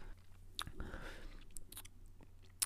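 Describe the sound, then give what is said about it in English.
Someone takes a final quiet sip of beer while tasting it for a score and swallows, with soft wet mouth clicks and smacks scattered around it and a sharper click at the end. No talking. “I'm gonna give it one last sip, then we're gonna give it a score.”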